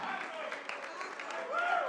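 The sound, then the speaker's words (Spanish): An audience at a church service applauds a man who has come with a young girl, steady, dense clapping mixed with crowd voices calling out over it, growing a little louder toward the end. “Denle el aplauso, aleluya.”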